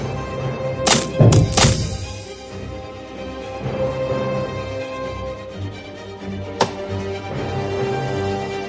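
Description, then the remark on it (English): Several sharp wooden chops and thuds land in a quick cluster near the start, followed by quieter knocking and one more crisp strike later, with no voices, as the wooden things in a palace are cut to pieces. “Let everything wooden in this palace be cut to pieces.”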